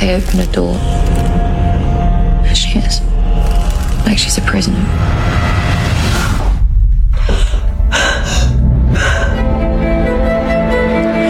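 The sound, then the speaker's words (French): Heavy, frightened breathing of a woman in a series trailer, with sharp gasps and shaky exhales, loud, repeating over a dark, droning soundtrack with no speech. “Moi, j'aime bien les bandes annonces où les gens respirent fort et vous montrent que ça.”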